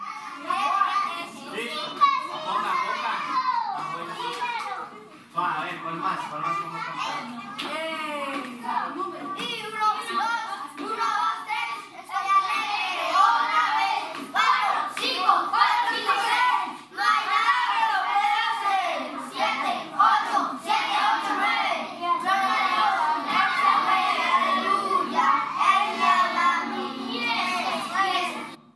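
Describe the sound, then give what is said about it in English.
A crowd of excited young children of the Jóvenes Club Bible study group shouting, squealing and chattering at once, a loud, continuous overlapping din of high voices that never lets up, with occasional claps mixed into the commotion. “So you hear how wound up they are and, and just how joyful they are.”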